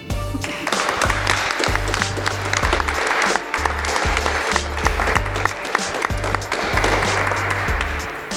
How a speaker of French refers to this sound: On peut les applaudir.